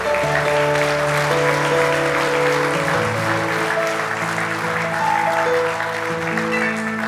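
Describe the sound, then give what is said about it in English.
An audience at a morning church service applauds steadily for several seconds for Jesus, a dense, continuous clatter of many hands, with sustained keyboard or organ chords playing underneath throughout. “If you love Jesus, let me hear your hands this morning.”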